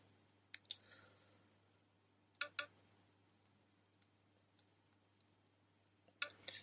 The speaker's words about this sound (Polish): jest wejście dla karty SIM i przy okazji wejście dla tego właśnie kluczyka, który jak trzymamy telefon ekranem do góry, e, to w, po prawej stronie jest właśnie taki otwór, do którego należy mm, wsunąć ten kluczyk i zdaje się należy tam nacisnąć.